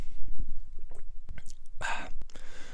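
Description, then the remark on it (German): Someone takes a sip of freshly poured iced tea: soft wet mouth clicks, then a brief bright slurp and a swallow, followed by a faint hissy breath. No one speaks. “Nimmt gerade einen schönen Schluck.”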